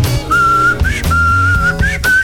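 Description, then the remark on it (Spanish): A person whistles a short song melody, a clear sustained tone with a few rising slides, over low accompanying musical tones; fairly loud, with no talking. “Pero un silbido, pero había que tener un buen silbador, como pueden ver, yo no, soy un buen silbador.”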